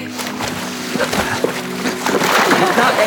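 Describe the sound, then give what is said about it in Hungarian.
Salt water splashes and sloshes in irregular bursts as someone splashes it about, growing busier toward the end, with a steady low hum and faint voices in the background. “Ne, ne fröcskölj már, basszus, hát bele fröcskölöd a szemembe a kurva sós vizet”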